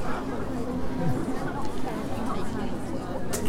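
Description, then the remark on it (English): Steady, overlapping chatter of children and other voices on a busy beach, a constant murmur with no single voice standing out and a brief bright rustle near the end. “kids on the beach, ice cream cones, pork pie hats.”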